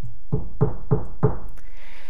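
knock on a door

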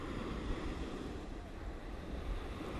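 ocean waves washing ashore

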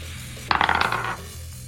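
dice rolling

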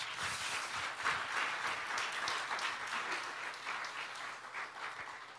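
audience applauding

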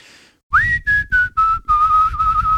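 person whistling a tune

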